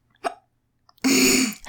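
A quick, sharp hiccup pops out, then after a brief pause comes a louder, longer hiccup with a voiced, throaty edge. No one speaks.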